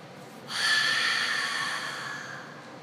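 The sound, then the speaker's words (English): A single long, hissy breath exhaled fully through the nose during a breathing exercise, fairly loud, lasting about two seconds before trailing off. No talking. “I'm not going to breathe until you hear it come through my nose.”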